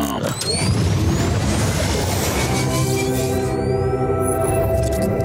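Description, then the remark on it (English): A loud jingle for radio station 105.7 The Bone plays for several seconds, introducing the NFL power rankings segment: dense, heavily produced sound with rising sweeps and whooshes, a voice woven in, and sustained tones that ring out toward the end. “We rarely let it just play out like that. So it's, it's just a it's a nice little jingle.”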